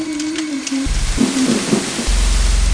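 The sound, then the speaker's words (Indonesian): Harsh static heard on a telephone call, like a broken TV, a loud steady hiss with crackle, low humming bands and faint wavering tones running through it, with no voices. “Tapi masih sama seperti yang di awal, yang kakak saya dengar hanyalah suara statis.”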